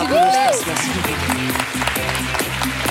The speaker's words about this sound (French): Ce serait bien de l'applaudir parce que c'est son premier spectacle de fin ah, d'année.